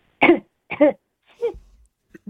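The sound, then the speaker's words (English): Three short, harsh coughs in quick succession, fairly loud, followed by a low throat-clearing rumble and a couple of faint catches of breath, with no talking. “Cough and sneeze,”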